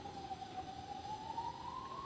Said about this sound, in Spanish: ¿Pasan ambulancias? Porque estoy al lado de una clínica, la clínica del country.